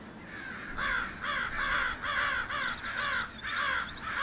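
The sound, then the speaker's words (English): Birds at a cliff call repeatedly in a steady run of about eight harsh, raspy cries, loud, one after another with brief gaps and no talking. “We'd sit there on the cliff while I ate, and we'd watch the birds.”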